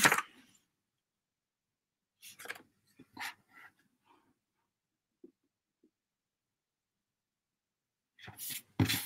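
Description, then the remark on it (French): Paper rustling and crinkling in a few short bursts, with quiet pauses between, as a sheet that had been put upside down is shuffled and turned over, ending in a longer, louder handling. “J'ai mis le papier à l'envers.”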